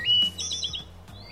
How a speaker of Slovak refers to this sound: vtáčiky v parku. Mm, to je pohodička. Potôčik.